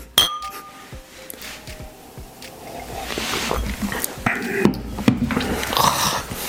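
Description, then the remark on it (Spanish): Glasses clink together in a toast: a couple of sharp clinks at the start with a brief bright ring, followed by louder, busy background noise. “salud.”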